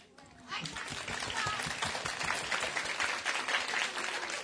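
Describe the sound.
Audience applause, mostly from parents rather than children, breaks out after a brief quiet start, following news that a rocket launched successfully on its third attempt. It holds steady, a dense wash of many hands clapping at a fairly even level for several seconds, with some crowd voices mixed in.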